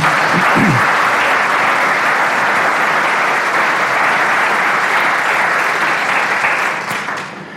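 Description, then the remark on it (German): Loud, sustained audience applause welcoming two guests, a dense steady wash of many hands clapping that holds for several seconds before tapering off slightly at the end. No one speaks over it. “Wir heißen sie doch mit einem herzlichen Applaus willkommen.”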